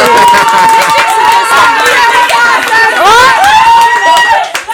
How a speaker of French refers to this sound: Oui, oui, oui, ça c'est bien, on peut applaudir.